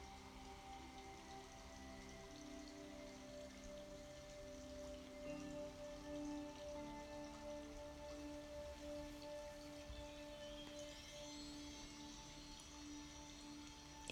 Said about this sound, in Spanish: continúas escuchando ese sonido del agua que fluye como tú, que fluye igual que tu energía por todo tu cuerpo.